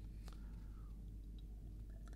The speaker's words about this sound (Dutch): Even een slokje.